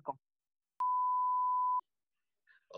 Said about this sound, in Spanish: Un, un pitido, ¿no?